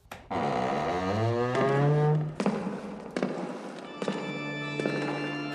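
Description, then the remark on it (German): A heavy church door creaks open with a long, rising groan from its hinges, followed by several loud, hollow clunks and knocks, with no talking. “Warte mal, ich mache mal die Tür hier auf.”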